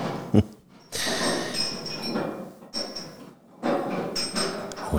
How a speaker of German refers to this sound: Es klimpert ganz laut. Es äh, sind auf jeden Fall, es sind Glasflaschen im Spiel, würde ich sagen, oder gekühlte Gläser.